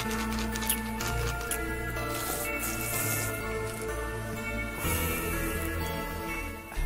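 Liquid swirls and sloshes inside a small vial at the opening of a rap album, a continuous wet, dripping churn layered over a steady low droning tone, moderately loud, with no talking.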